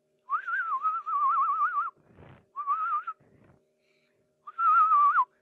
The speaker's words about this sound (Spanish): ¿puedes silbar? Sí, güey.